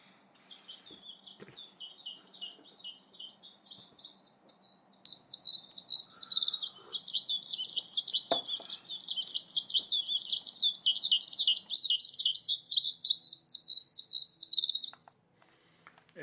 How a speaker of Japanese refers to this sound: 今日はひばりの声も明るく感じますね